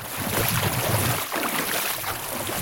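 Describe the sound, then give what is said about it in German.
A continuous watery swish and rush of a hand net being pulled steadily through knee-deep water in a tidal creek on the Wadden Sea mudflats, fairly loud, with a breezy outdoor hiss and no talking. “Hier, wo das Wasser etwas tiefer ist, es reicht uns bis knapp unters Knie, zieht Gerke seinen Kescher hinter sich her.”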